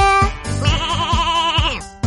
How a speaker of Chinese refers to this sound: 小羊叫。 妈妈，看，是小羊哎！ 哈哈，是哦，小羊怎么叫呢？